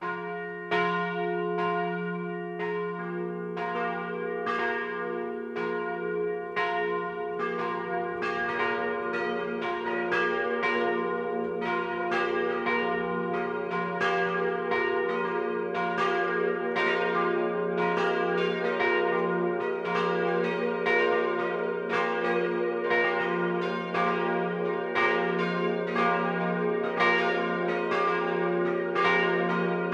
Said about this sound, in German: Es ist 12 Uhr. Das Mittagsläuten kommt heute von der katholischen Pfarrkirche St. Maria Magdalena im schwäbischen Schildberg.